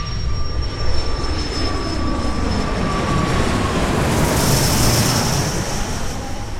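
A steady, loud engine drone of a small plane carrying Jonas Gahr Støre circling over Kabul before landing, with a high whine sliding slowly downward, and no voices over it.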